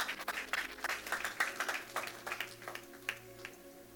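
An audience claps for a few seconds, a dense patter of many hands that swells and thins unevenly, at fairly low volume over a faint steady hum.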